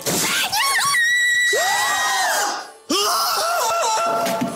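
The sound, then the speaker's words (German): Loud, high-pitched screams of joy with wavering, rising and falling pitch, ringing out in two long bursts separated by a brief break, intense, with no talking. “Zalando, schrei vor Glück oder schick zurück.”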